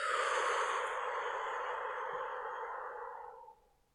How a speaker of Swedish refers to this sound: Andas in. Bara håll andan lite kort. Och släpp taget och andas ut.